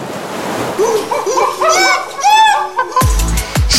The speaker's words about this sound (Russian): слушай море.